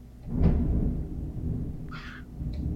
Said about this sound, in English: Yeah, the, the thunder wow, lightning.